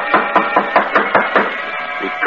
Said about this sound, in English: Knock. Go ahead. Louder. Again